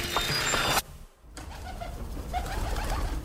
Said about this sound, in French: on a pu se servir de ces oiseaux comme de messagers, les pigeons voyageurs